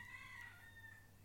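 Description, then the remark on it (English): A rooster on a fence crows once, a thin, drawn-out call that trails off, faint against a steady low background hum with no voices. “There's that bloody rooster crowing on the fence.”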